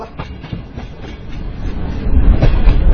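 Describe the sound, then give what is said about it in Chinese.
Train S232, the last train to stop at Qinghuayuan Station, rolls along the rails at 9 p.m. on a near-freezing night, with a steady low rumble and faint rhythmic clacking of wheels, growing louder and heavier toward the end. No voices are heard. “晚上二十一点，送走最后一列在清华园站停靠的车 S 二三二。”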